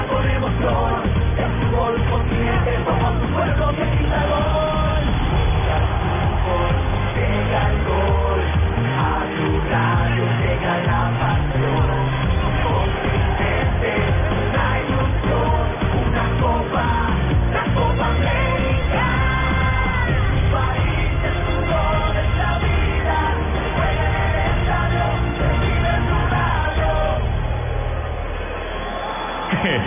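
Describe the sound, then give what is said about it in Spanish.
A huge stadium crowd in Chile roars and cheers nonstop for half a minute as Peru takes third place over Paraguay at the 2015 Copa América, loud and dense, with excited yells and whoops rising out of the din, heard through a slightly muffled, narrow Blue Radio broadcast sound. “emoción y alegría. Feliz toda todas y toda gritan.”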